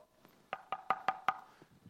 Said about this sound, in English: By the way, if you're in a spat, or let's call it a fight, with your wife, and your best friend's dog knocks on the door,